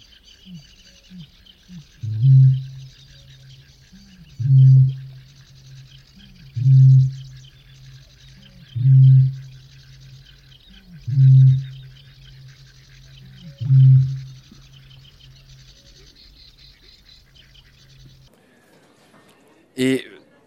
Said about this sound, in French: en fait il nous traverse et le corps tremble par la puissance du son. C'est un peu un fantôme des roselières, c'est-à-dire qu'on ne le voit jamais, on l'entend bien. Tu m'apprends que le son du butor est extraordinairement puissant. On va l'écouter.